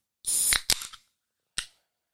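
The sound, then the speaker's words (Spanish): A can of 7 Up cracks open: a sharp metallic pop and a quick fizzing hiss, followed a moment later by a single faint click. No one speaks. “cómo me gusta el agua enlatada, con azúcar, con gas, y que se llama 7 Up.”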